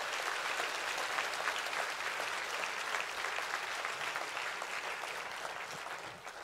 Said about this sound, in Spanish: Si ese es el aplauso, dáselo bien a tu papá.